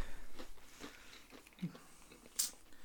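Crunching of potato chips being bitten and chewed, several irregular crisp cracks with one sharp bright crunch near the end, heard alone without talking.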